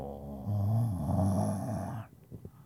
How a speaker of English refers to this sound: hear that thunder. It's going hard.